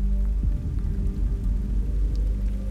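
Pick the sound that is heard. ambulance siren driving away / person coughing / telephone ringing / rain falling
rain falling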